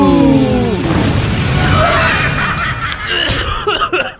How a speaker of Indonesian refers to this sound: batuk sepertinya. Dimulai dengan opening batuk. Anda batuk.